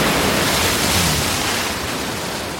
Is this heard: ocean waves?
yes